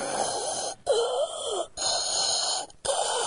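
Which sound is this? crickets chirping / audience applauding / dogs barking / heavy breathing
heavy breathing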